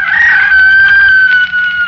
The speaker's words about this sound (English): And below us somewhere a rooster crowed, and I was standing alone on the hill.